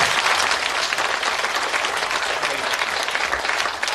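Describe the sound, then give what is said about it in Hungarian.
An audience breaks into steady, dense applause to welcome two boys who volunteered, many hands clapping at once in a loud, even wash of sound that holds for several seconds without pause. “Kérem a két jelentkező fiút, megérkeztek, nagy tapsal köszöntsük őket.”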